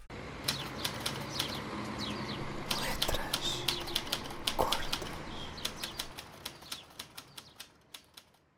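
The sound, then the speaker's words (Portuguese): Paper being handled and rustled, with crisp crinkling bursts that settle into a quick, regular run of flaps near the end, while a voice speaks briefly in the background. “para de mexer no meu papel.”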